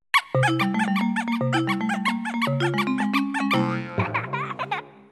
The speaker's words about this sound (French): Donc si vous l'allumez la console en maintenant le bouton Z d'une manette, bah, il y aura un son un peu différent, un mode un peu un peu bruit de singe, petit euh, jouet qui fait pouic pouic.